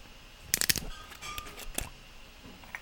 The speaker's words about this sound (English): So I'm going to open the, the cap here. It's one of those. I love wine with twist off caps. you know, corks are nice, whatever, but it's so much easier to do a twist off cap. So we're going to do the wine ASMR twist off cap, pour, and sip.